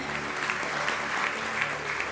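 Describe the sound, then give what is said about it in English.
An audience applauds in praise of God, a dense, even wash of many hands clapping at moderate loudness with no pauses, sustained throughout, with a faint tonal hum underneath. “Every, come on, if we're going to clap, let's really clap for a God that sent His Spirit.”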